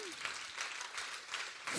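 An audience bursts into sustained applause as a clap of praise for God, a dense wash of many hands clapping that swells in waves and grows louder toward the end, with no one speaking over it.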